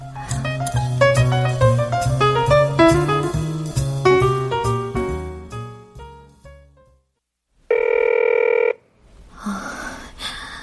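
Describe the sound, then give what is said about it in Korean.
A phone ringtone plays a bright, melodic run of notes for several seconds and fades out. A short, steady electronic tone follows, then a brief burst of rustling noise. No one speaks. “아, 작가님, 전화 좀 받으세요.”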